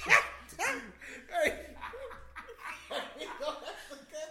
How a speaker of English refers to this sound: back up from the mic. my dude breathing like a seal hey, at SeaWorld. man, bro.